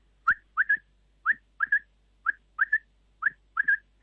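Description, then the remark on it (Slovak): A quail calling alone out in nature, repeating its sharp three-note whistle four times: one clipped note followed by a quick double note, in a steady, evenly spaced rhythm. “A popri tom všetkom eh, ešte aj tie zvuky v prírode, ktoré sú prepelice, teraz sa ozývajú, nie je ich už toľko, koľko ich bývalo za mladí, ale tú atmosféru zvukovú dotvárajú.”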